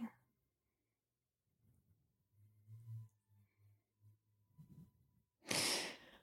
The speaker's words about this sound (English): your breathing.